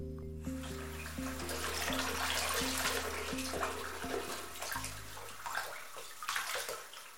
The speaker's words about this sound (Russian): Вернувшись домой, герой пошел смывать кровь с руки.